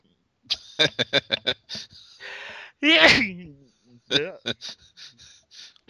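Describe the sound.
A loud sneeze bursts out about halfway through, preceded by a quick series of short, sharp vocal sounds and followed by a few more brief voiced noises.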